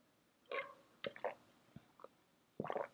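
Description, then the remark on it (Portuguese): Someone takes a sip of water: a series of short, wet gulping and swallowing sounds spread unevenly, with a fuller gulp near the end and no talking. “Mas antes, um gole de água, que eu estou com muita sede.”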